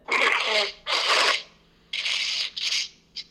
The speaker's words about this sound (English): Are you blowing your nose? I am. There's so much snot.